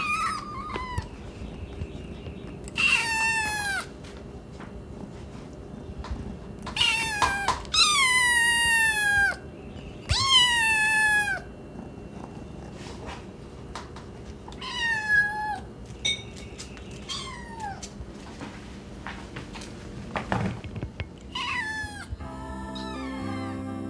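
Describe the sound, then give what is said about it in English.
Several hungry kittens meow repeatedly in high, rising-and-falling cries, overlapping in clustered bursts with short pauses, fairly loud over a low background rumble. “That was the sound of hungry, hungry kittens.”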